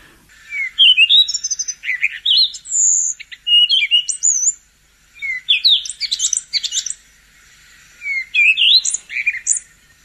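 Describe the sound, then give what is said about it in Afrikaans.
A Cape robin-chat sings, delivering four bright phrases of sweet, varied whistles and warbles separated by short pauses, with no other sounds or voices. “en dan die lieflike roep van die Jan Frederik.”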